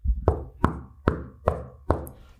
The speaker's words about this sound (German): Ich klopfe mal auf den Tisch.